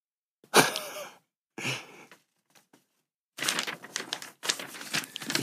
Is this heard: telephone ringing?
no